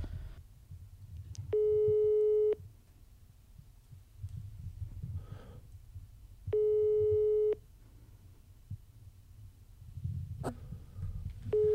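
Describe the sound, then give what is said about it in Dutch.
A WhatsApp call's ringback tone repeats unanswered: a steady one-second beep about every five seconds, three rings in all, with a low rumbling hum in the background and no voices. “Gaat WhatsApp naar voicemail? Nee, dat, gaat, dat oh, blijft, dat blijft overgaan.”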